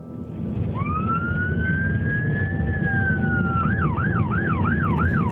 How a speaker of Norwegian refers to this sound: Ambulanse og politi kommer snart til stedet.